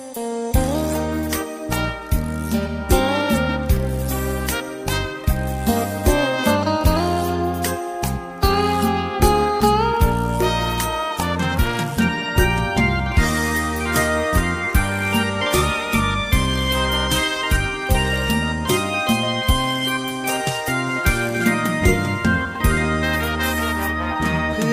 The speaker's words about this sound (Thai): ช่วงนี้เบรกฟังเพลงกันสักครู่หนึ่งช่วงหน้ากลับมาอยู่กับผมต่อกับรายการ Talk to You นะครับ